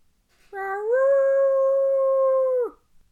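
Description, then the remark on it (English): A single long, mournful common loon wail that rises slightly at the start, then holds a steady, clear, harmonic tone for about two seconds before breaking off abruptly. “Common loon.”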